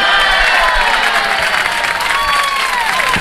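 A crowd applauds loudly and steadily, dense clapping filling the whole stretch with a faint cheer or whistle rising over it.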